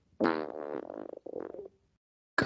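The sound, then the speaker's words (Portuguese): A voiced lip noise made with a person's lips while thinking, a buzzing, raspberry-like sputter in two drawn-out bursts with a short gap between them, then a brief pause before another sound begins. “O Caralho, som de, de, Meus lábios.”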